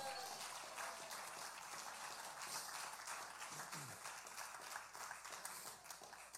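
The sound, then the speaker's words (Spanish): A crowd at a Spanish-language sermon claps steadily and densely, giving applause to God, a continuous wash of many hands applauding together that holds at an even level for several seconds, with a faint voice briefly showing through. “Denle el aplauso al que vive y reina.”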